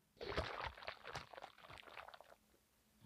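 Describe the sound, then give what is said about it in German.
Water sloshes and gurgles inside a hot water bottle for about two seconds, an irregular series of squelchy splashes that fade out, with no talking. “da bist du ganz nah dran, aber nur nicht im Gefrierbeutel, sondern in der Wärmflasche”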